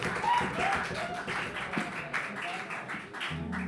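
Steady, dense audience applause for a band, a loud wash of many hands clapping with a few voices mixed in, continuing for several seconds before a low sustained musical tone comes in at the end.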